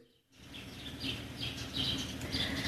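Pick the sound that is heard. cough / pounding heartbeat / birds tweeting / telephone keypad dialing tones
birds tweeting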